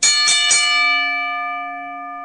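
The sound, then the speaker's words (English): A bell is struck sharply a few times in quick succession, then rings out with a long, steady metallic tone that slowly fades. It is loud, with no voices. “Ring the bell.”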